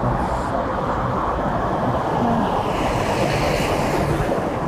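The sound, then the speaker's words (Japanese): A steady, dense roar of outdoor car traffic, loud and continuous with no distinct pauses, like vehicles streaming past; a faint breathy wind layer sits on top and nobody speaks. “車がうるさいとこって絶対信号待ちが起こるんでまあ、車優勢のところだからこそうるさいっていうのもあるとんで、悲しいですが。”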